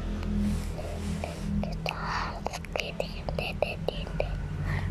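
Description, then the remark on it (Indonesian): A child whispers softly and breathily, the hushed syllables coming in short bursts with faint clicks and rustles, no voiced speech. “bisik-bisik apa sih nggak kedengeran ngomong apa”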